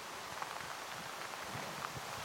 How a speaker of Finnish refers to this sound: Tämä on se ääni, mikä kuuluu, kun sade hakkaa näihin Goretex-vaatteisiin. Eli aika pilvistä täällä on, pelkkää harmautta näkyy ympärillä suolla ja tää välillä vähän hiljenee tää sade ja nyt tää taas vähän kiihtyy, mutta eihän se meitä haittaa.